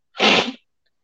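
A single loud sneeze bursts out sharply and fades within about half a second, followed by silence with no talking.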